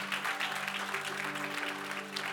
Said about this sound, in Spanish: ¿Cuántos dan gloria al nombre de Cristo Jesús? Denle ese aplauso al Señor porque Él es bueno.